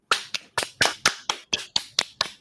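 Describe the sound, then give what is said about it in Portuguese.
Hand clapping as a round of applause for Marcos Scorsese: about ten sharp, crisp claps in a steady, quick rhythm, fairly loud and bright, with no voices over them. “Terminamos esse episódio com a salva de palmas para o Marcos Scorsese.”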